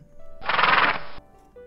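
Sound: horse neighing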